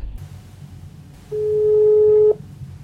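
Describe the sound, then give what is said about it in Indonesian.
A single steady telephone ringing tone sounds for about a second as a call is placed to Reda Gaudiamo, clear and fairly loud over a low background hum, with no one talking. “Langsung aja yuk Mbak Redanya kita telepon.”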